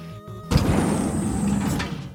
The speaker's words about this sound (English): The giant door flew open